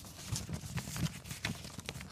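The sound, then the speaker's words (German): The pages of a French paper newspaper rustle and crinkle in a run of soft, irregular bursts with dull low thumps beneath, steady and fairly quiet throughout, with no voices. “Wenn ihr jetzt eine Szene vertonen wollt, wo ein weißhaariger Mann in einem Café in Paris die Zeitung liest, einfach dieses Geräusch drunter legen.”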